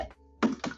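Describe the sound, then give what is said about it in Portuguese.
A hand taps a bottle: two quick taps about a fifth of a second apart, each a bright knock with a brief hollow ring, following a faint softer tap. “é o som da garrafa.”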